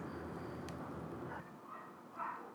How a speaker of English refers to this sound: What's up with them dogs?